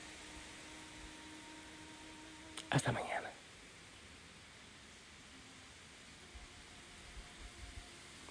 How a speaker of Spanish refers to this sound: Aquí en Betel, escucha, mucha brisa.